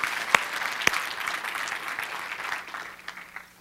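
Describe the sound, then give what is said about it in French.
An audience bursts into steady, dense applause with many hands clapping at once, a few sharper claps standing out early on, before the clapping thins and fades toward the end. “Je peux applaudir comme il faut parce que c'est une grande vérité.”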